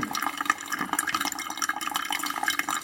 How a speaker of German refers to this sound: Müssen wir eigentlich jetzt aufgießen, relativ schnell um relativ schnell den Wasserdruck aufzubauen. Mhm. Und dann muss der gleichbleibend sein. Das heißt, wir gießen gleichmäßig Wasser hinterher, bis wir auf der gewünschten Menge sind.